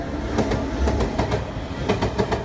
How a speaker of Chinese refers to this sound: 他搬张小椅子坐在家门口猜火车，远远的听见车轮摩擦铁轨的声音。福龙虽然没有坐过火车，但是一听声音就知道橘色的火车来了。